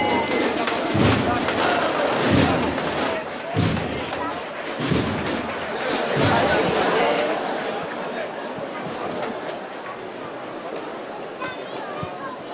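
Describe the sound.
Drums of the Monte Calvario band, in a street procession with the Jesús Preso float on Calle Campanas, pound out slow, evenly spaced heavy beats over the first half, amid a thick murmur of crowd voices that carries on after the drumming fades.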